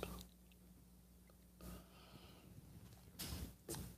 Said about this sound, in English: Put all of your thoughts just into the beverage in front of you. And there, you just rebooted. And now, the simultaneous sip.